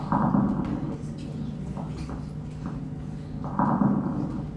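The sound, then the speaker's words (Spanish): Lung crackles (crépitos) heard through a stethoscope, wet and mucous-sounding: muffled breathing swells twice, with scattered tiny pops and clicks riding over a low, rumbling background. “Como unas mini explosiones.”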